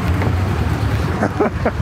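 Steady low engine rumble and wind buffeting from a moving truck, loud and close, filling the whole moment with continuous road noise and faint voice-like traces underneath.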